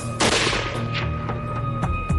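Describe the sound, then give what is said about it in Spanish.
A rifle shot rings out with a sharp, loud crack and a trailing decay, followed by several fainter, scattered cracks and thumps over a steady low hum. No one speaks. “¿Pero podían demostrar los investigadores que el disparo fue intencionado?”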